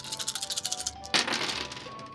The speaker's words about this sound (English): So you rolled seven dice from your pool, and that's two.